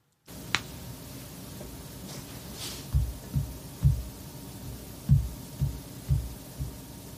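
tapping on a microphone

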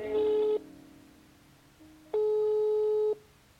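telephone ringing tone

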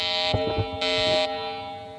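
alarm sound effect

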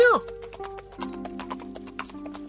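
horse hooves clip-clopping

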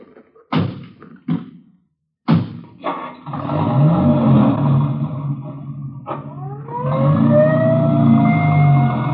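ambulance siren driving away

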